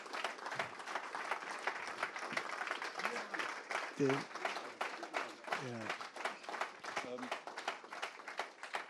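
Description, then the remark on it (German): Sustained applause from an audience after a reading, a dense steady patter of many hands clapping, with a few voices briefly calling or talking over it partway through. “Ähm, ähm, gerne einen Applaus jetzt, denn dafür.”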